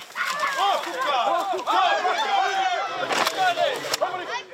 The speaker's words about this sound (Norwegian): Dette var lyden av ei samla vekt på to tonn med okser som deisa inn i det provisoriske gjerdet laga av europaller.